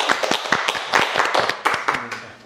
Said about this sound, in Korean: 아, 이건 네, 박수 한번 네. 쳐드려겠습니다